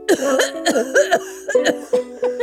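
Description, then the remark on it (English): A loud fit of harsh, voiced psychosomatic coughing: six or seven rapid coughs in a steady run, each a short hacking burst with no talking in between. “…, there's no shame in having a psychosomatic cough.”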